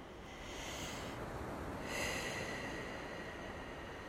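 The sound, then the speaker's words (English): A dog sniffs close by, a soft, steady stretch of snuffling and snorting breaths through the nose, with a brief pause before it picks up again. No one speaks. “My dog just came up and he's sniffing right by me.”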